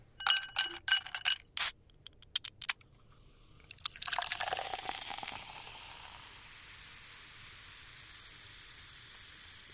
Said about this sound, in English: That's right. It's time to sit back and pour yourself a soda.